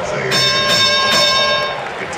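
A 30 point bell rings loudly and steadily during a Jazz basketball game broadcast, its sustained metallic tones layered with quick repeated strikes over a noisy, crowded background.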